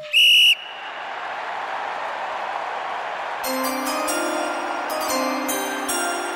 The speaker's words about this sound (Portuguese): É, pode tocar sirene, não tem problema nenhum.